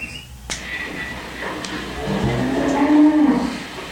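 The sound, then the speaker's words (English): Cattle on a cattle drive low and moo in a drawn-out, rising call that swells in the second half, with a sharp crack near the start and faint background noise. “That's why I always take Block Guard deodorant with me when I go on a cattle drive.”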